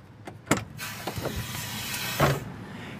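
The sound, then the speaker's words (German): A fire truck's pneumatic step at the rear crew cab folding away automatically as the door is closed, with a sharp mechanical clunk followed by a steady rush of hissing air and a second thump as it settles, with no talking. “Und zwar haben wir ein pneumatisches äh, Trittsystem, was automatisch abklappt, sobald ich die Türe schließe”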